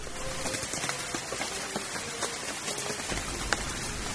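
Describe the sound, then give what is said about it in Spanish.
Steady rain patters across hard city streets, with scattered sharper drips and taps popping out of a dense, even hiss. No voices, just continuous wet ambience for a few seconds. “Los invitamos a imaginar, eh, a sentirnos desandando las calles de Buenos Aires bajo la lluvia.”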